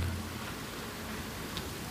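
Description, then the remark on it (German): Steady, soft rushing water of a small mountain stream during snowmelt in the Bavarian Pre-Alps, a gentle continuous babble, even and unbroken with no voices, with a faint low rumble at the very start. “genieße das Rauschen des Bächleins”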